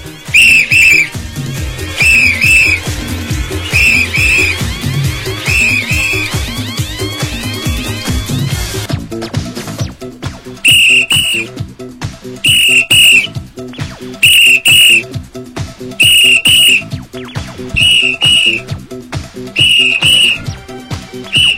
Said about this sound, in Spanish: ¿Qué tal? ¿Qué te parece mi silbato, eh? muy, bueno, muy bueno. Esto era el ambiente que se vivía en los años 70